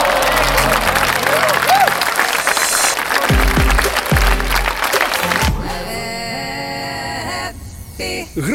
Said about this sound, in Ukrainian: Ми просто пишаємось вами, нескорені українські воїни. Вам оплески стоячі від усіх нас, від усіх, від усіх, від усіх.